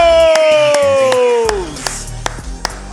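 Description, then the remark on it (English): A small crowd of East Forsyth Fighting Eagles football fans cheers with a long, downward-sliding whooping shout over scattered hand claps, loud, thinning to a few sharp claps as the cheer fades. “and we've got some Eagle fans in the house. Eagles, make some noise!”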